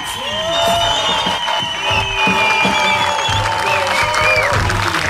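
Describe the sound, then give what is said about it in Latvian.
Sustained audience applause for the team's coach, with dense clapping and some cheering, steady and loud throughout, while sustained tonal sounds like horns or whistles run through the crowd noise. “Tāpēc viskaļākie aplausi trenerim”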